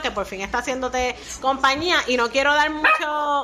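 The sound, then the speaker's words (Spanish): Mario, a three-month-old puppy, yips and barks faintly in the background, a few short high-pitched bursts beneath a woman speaking steadily in the foreground. “Así que, pero si escuchan de fondo a Mario, pues es que Mario tiene tres meses. Ya me disculpan. Es un pop y me disculpan.”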